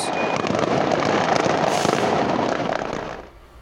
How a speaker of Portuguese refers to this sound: Moradores soltaram fogos em homenagem ao adolescente que tinha 17 anos.